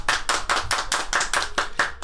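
A short burst of clapping, around nine or ten sharp claps in a quick, steady rhythm, moderately loud with no voices over it.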